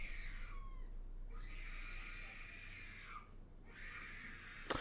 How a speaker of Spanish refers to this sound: El hijo del vecino está llorando, pero así. Pero no está llorando porque le duele algo, está llorando porque no le han comprado algo.